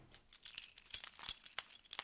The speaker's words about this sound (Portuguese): É tipo, ah, bacana, estão aqui. Puxo-as, pego nelas, vejo e que chaves é que são? As chaves que eu achei que tinha perdido há meses.